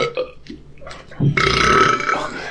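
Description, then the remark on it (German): A long, loud burp that swells after a brief voiced lead-in and rumbles on for over a second, deep and raspy with a rough, buzzing texture. “Wer, wer, kriegt, wer, wer, kriegt noch ein Bäuerchen raus?”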